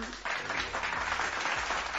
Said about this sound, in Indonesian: Mestinya tepuk tangan.